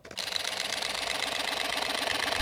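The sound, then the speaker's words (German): A camera shutter fires in a rapid, unbroken burst, a fast even mechanical rattle of clicks that starts abruptly and keeps going at a steady, fairly loud level with no voices. “Und die kann, die kann einfach wie ein Maschinengewehr, ja. Wenn man die richtig einstellt, dann hört die gar nicht mehr auf.”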